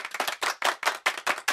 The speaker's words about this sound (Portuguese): E a resposta correta é. Um grupo de pessoas a bater palmas.